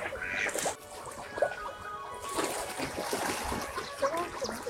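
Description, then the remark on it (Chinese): Ducks quack repeatedly over a steady wash of water on the moat inside the west gate of the Summer Palace (Yiheyuan), with scattered splashes and the calls of about four or five kinds of waterbirds swimming there, plus human voices. Nasal, mid-pitched calls come in irregular bursts at a moderate level. “刚才让大家听到的这段声音，就是在颐和园西门进门的那个护城河边，呃，有大约有四五种水鸟在游弋，在发出各种各样的叫声，当然还有人声啊。”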